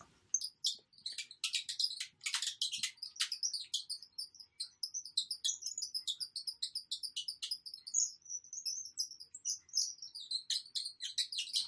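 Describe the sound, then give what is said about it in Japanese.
A handmade bird call, of the kind sold in musical instrument shops and repainted to look like a fishing lure, squeaks out rapid, high-pitched chirps and twittering tweets in quick bursts, fairly loud, imitating songbird calls with no voices present. “みたいなね、鳥の音を再現できるんですが、バードコールっていうのは、あの、楽器屋さんで売ってるんですけど、それをちょっと釣りのルアーっぽいリペイントをして、いろいろ作ってみました。”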